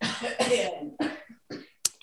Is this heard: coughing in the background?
yes